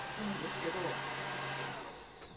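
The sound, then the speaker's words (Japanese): A steady motor whine with a broad, rushing airflow hiss runs continuously from a cordless vacuum cleaner whose cleaning head rotates as it is moved left and right, easing slightly toward the end. Faint harmonic tones sit under the whirring. “そのまま、えーとヘッドをくるくる回したりとかできると思うんですけれどもすごいすごい回転しながら掃除ヘッド回転してますね”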